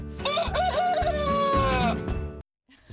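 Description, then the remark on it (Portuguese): A rooster crows loudly, one long cock-a-doodle-doo lasting about two seconds with a wavering, harmonic call, then it cuts off abruptly into near silence. “Uma coisa é certa, o galo famoso vai ficar bem longe da panela.”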